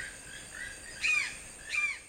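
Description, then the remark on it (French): Two hoarse, croaking toucan calls, spaced just under a second apart, ring out clearly over a faint, steady forest background with no one speaking. “Découvrons ensemble le toucan.”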